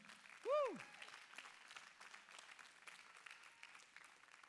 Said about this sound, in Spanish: Así es que los honramos. Una vez más, dese un fuerte aplauso.